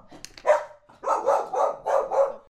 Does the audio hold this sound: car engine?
no